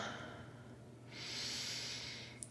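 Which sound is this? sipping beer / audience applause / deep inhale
deep inhale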